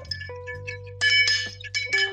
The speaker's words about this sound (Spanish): Primero hay que enfriar la copa cóctel, ¿no? ¿Cómo se enfría? Le ponemos unos hielos y mezclamos, le ponemos unos hielos y mezclamos.